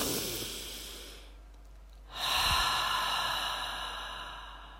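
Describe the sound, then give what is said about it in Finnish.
A slow, deep breath out, a brief pause, then another long airy breath that gently fades. Soft, with no talking. “Hengittää.”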